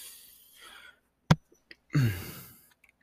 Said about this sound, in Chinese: 一直打嗝，真抱歉。